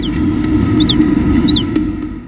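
Naked mole-rat greeting calls, recorded in Alison Barker's laboratory in Berlin, which houses many naked mole-rat colonies: three short, high, arching chirps spaced roughly evenly apart, heard over a steady, fairly loud low rumble of background noise, with no talking.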